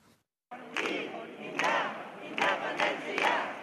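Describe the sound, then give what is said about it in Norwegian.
A large crowd of supporters of Catalonia breaking away from Spain clapping and singing over the result of the independence referendum: a loud, dense roar of voices with repeated sharp clapping accents, starting abruptly after a brief moment of silence. “Tilhengere av å bryte ut av Spania klapper og synger frem resultatet av gårsdagens folkeavstemning.”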